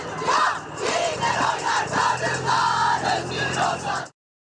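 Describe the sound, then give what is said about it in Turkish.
A large crowd of women shouts and chants protest slogans loudly and continuously while marching on a street in Istanbul closed to traffic on 8 March, many voices blending into a dense roar with rhythmic surges, ending abruptly after about four seconds. “Cadde cadde sokak sokak haykırdı kadınlar. Seslerini duyurmaya çalıştılar.”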